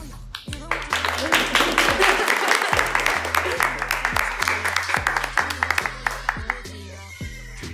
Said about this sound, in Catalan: Ara uns aplaudiments per les noies de la Xavi.